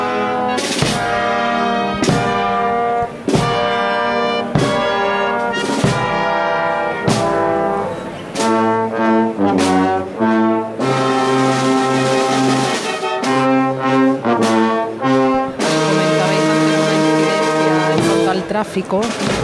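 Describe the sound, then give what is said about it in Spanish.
A loud brass procession band plays outdoors at La Campana during a street procession, with sustained swelling chords and steady drum beats marking a slow, solemn march rhythm throughout. “Vamos a escuchar los últimos sonidos musicales que vamos a escuchar aquí en la campana,”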